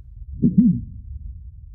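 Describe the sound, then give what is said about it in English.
Muffled inner-body sounds heard through a stethoscope touching the body: a steady low rumble with a brief swelling, warbling whoosh in the middle, dull, with no voices. “And you touch the body, and straight away you can hear uh, the sound from the inner body because it's in contact.”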